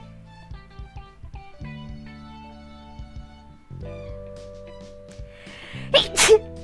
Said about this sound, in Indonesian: eh maaf maaf gue bersin